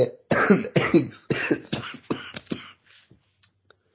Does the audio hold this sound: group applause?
no